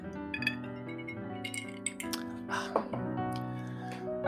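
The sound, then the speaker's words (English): Hendrick's gin is poured with tonic and glasses clink together a few times in a toast, with bright, short chimes standing out over a steady tonal background hum. “And let's pour that and I'll also um, obviously muddle some tonic into it and say cheers”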